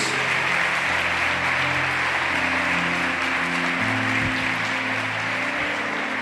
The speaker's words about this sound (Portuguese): Aplauda aí o Todo-Poderoso em nome de Jesus.